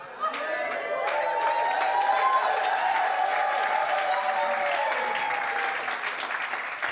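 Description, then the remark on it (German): An audience applauds and cheers for several seconds, steady dense clapping with raised voices mixed in, holding at a loud level before easing slightly at the end. “Und da dürfen die, die, die Leute nicht nur auf dem Fußballplatz jubeln, sondern sie dürfen auch in der Gemeinde und der Kirche jubeln.”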